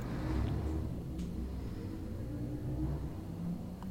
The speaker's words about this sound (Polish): Auta jeżdżą znowu. Znowu mi hałasują. Jak nie sąsiedzi, to auta.